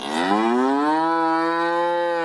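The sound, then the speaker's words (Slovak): A single loud cow moo that rises in pitch at the start and then holds a long, steady, droning tone for about two seconds, with no other sounds around it. “Čiže sme prišli na to, že kravička nám dáva o mnoho viac ako mliečko a mesko.”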